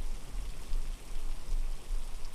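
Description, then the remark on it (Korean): Heavy rain pours down steadily, a dense, continuous hiss of drops drumming on surfaces with a low rumble underneath, loud with no voices. “그 와중에도 장대비 소린 계속 귀를 때리고 있었다.”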